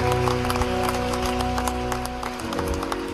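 A crowd applauds the people present that night, after a prayer, in a steady, dense wash of clapping that holds at an even level throughout, with sustained musical tones underneath.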